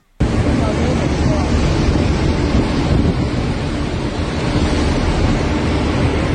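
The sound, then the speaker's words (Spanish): A submarine volcano that has fully risen above the sea surface erupts with a continuous roar heard from relatively close by, a loud, dense rumble with wind-buffeted noise that starts abruptly and holds steady for several seconds without letup. “Eh, y bueno, pues si quieres escuchamos parte de cómo se escuchó gente que estaban relativamente cerca de este, de este volcán, ya cuando había salido totalmente de la superficie marítima.”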